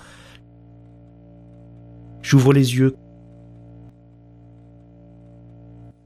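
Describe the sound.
A steady, low electrical hum of fluorescent lights in a recovery room drones continuously throughout, with a short spoken phrase briefly rising above it around the middle.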